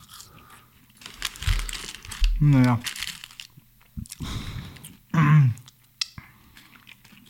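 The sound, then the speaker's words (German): Someone chewing a french fry for ASMR sounds, with soft, crunchy bites in irregular bursts, interrupted by two brief spoken remarks. “Das war eine Pommes.”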